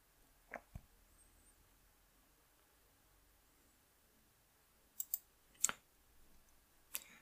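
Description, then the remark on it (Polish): Sharp computer mouse clicks as someone clicks on a Lenovo laptop listing, two quick ones early on, then a longer pause before several more scattered clicks, set against a faint hiss with no talking. “Ale dlaczego mam tutaj nie wejść? Kliknijmy to.”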